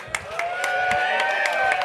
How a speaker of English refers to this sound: Guys, what about a round of applause for our panel?